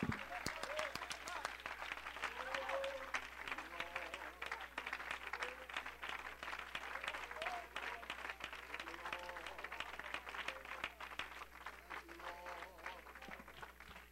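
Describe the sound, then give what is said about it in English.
An audience in an auditorium at an evening revival claps their hands together in dense, steady applause that carries on for the whole stretch, with a few voices calling out faintly beneath the clapping. “I'll clap my hands to that.”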